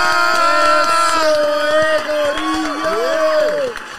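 Loud, steady clapping from a crowd runs throughout, mixed with sustained cheers and rising and falling whoops, then thins slightly near the end.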